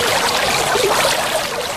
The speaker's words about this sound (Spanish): Entonces una noche pues salí yo de cacería, pasé por un arroyo, ahí se va a sonar un, arroyo. Ese es un arroyo.